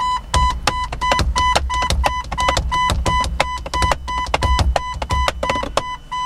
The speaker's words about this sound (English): If I open the door, I get an interesting beeping sound. That is the perfect tempo as far as I'm concerned for jungle.